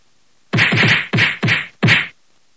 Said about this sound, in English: Jesus Christ. That's a Will Smith sound. that was only one smack, yo.